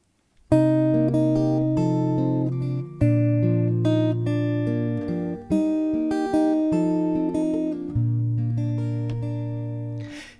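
An instrumental song intro: sustained chords struck roughly every two and a half seconds, each ringing out and fading, clear and close with no singing or talking yet.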